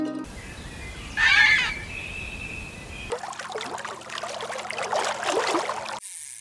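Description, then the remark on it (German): A single short chicken cluck rings out near the start over a faint steady hum, followed by a longer stretch of splashing, trickling water. No one speaks. “Es war aber auch ein Huhn dabei.”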